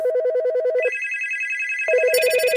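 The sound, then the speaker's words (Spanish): A telephone rings insistently with a rapid electronic trill, its warbling tones shifting pitch in steady repeated bursts, loud with no talking. The calls come from amateur rally drivers seeking funding to race their first rally. “Las llamadas insistentes de los pilotos amateurs que buscan financiación para correr su primer rally.”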